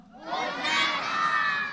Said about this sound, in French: Les enfants vont crier très fort. Vous allez dire Hosanna